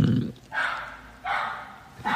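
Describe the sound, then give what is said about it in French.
A neighbour's dog barks three times in a steady rhythm, each bark harsh and drawn-out, with short quiet gaps between, with no talking. “le chien, présente le chien euh, de ma voisine, voilà, qui est totalement insup”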